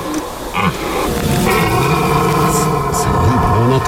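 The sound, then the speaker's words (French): A red deer stag belling during the rut in the neighbouring woods, a loud, deep roaring bellow that rises and sustains through the whole stretch, rough and groaning with wavering pitch. “le brame du cerf aboutissant ça vous prend au trip complètement parce que c'est dans le bois d'à côté.”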